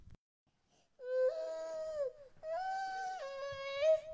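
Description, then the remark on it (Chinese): A child crying at night outside a window in an old residential compound, in two long, high-pitched wailing cries, the second rising and wavering before trailing off, with a short pause between them and no talking; the sound is near but its direction is unclear. “不对，听着像人，像一个小孩的哭声。”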